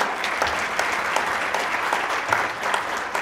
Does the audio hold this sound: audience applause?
yes